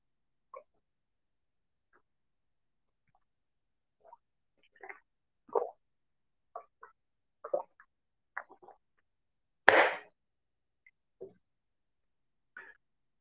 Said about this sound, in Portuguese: Deixe eu tomar uma água. É... Enquanto eu tomo minha água, vocês vão curtindo o vídeo,